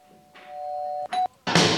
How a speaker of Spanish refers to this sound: Vamos a ir directamente a tu casa, como solemos hacer, en vez de tocarte el timbre y decirte, eh, llegó la pizza, te vamos a tocar el timbre,